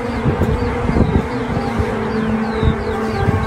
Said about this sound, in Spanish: Sounds like a, sounds like trumpet noises. Damn.